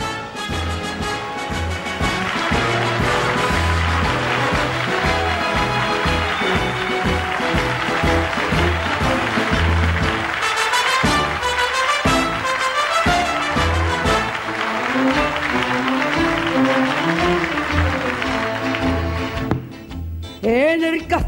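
A recording of a Spanish copla song plays loud, a melodic vocal line over full instrumental accompaniment, continuing steadily before cutting off near the end.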